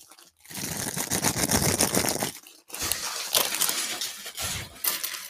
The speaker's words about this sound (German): Also dieses Retro-Gefühl, die alten Tüten aufzureißen, ist schon gut. Sind das alles noch perforierte? Nee, die sind nicht mehr perforiert, aber sind andere Tüten als heute, sind deutlich dünner knistern anders irgendwie.